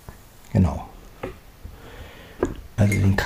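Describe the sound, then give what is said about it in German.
A few scattered clinks of a spoon against a coffee cup, fairly clear, heard from the right side in a stereo recording test, with short bursts of voice breaking in between the taps. “Ich glaube, jetzt müsstet ihr den Kaffee von rechts hören.”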